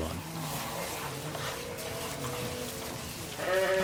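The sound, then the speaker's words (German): Sheep bleat during lambing season, overlapping calls rising and falling, with a louder bleat near the end over a constant background murmur of the flock. “Das heißt also eigentlich 24 Stunden müssen wir jetzt hier bei den Schafen”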